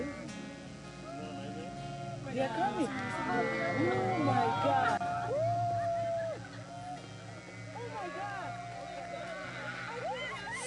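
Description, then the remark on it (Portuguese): A shepherd calls out and his flock of sheep answers with many overlapping, wavering bleats, over a steady low background rumble. “Agora vamos ao pastor das ovelhas.”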